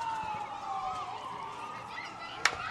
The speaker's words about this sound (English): So an ambulance goes by.